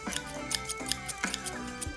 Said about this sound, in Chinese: 给大家听，看这个声音是什么声音？这就是什么东西？剪刀。这个小朋友不可以拿哦，这很危险。